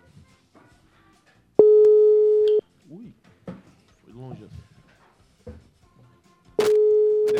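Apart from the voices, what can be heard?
telephone call ringing tone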